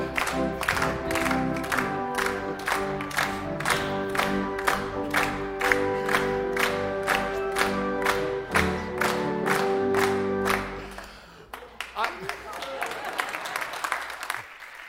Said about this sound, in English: You can clap along with him, right?